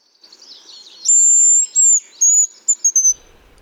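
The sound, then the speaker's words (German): A male hazel grouse calls with very high, thin whistles: a long drawn-out note followed by shorter piercing whistles and a quick trill-like flourish, loud and clear with no talking. “Ja, das ist ein Haselhahn”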